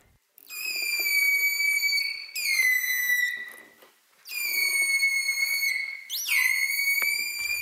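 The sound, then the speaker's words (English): Loud, sustained dolphin whistles with rich harmonic overtones, made as the dolphin was asked to whistle harder and louder while its oxygen use was measured. They come in several long bursts separated by brief pauses, with slight upward sweeps at the start of some calls. “Holt and Noren found that when the dolphin was whistling harder and louder, its metabolic rate rose by up to 80% above normal resting levels.”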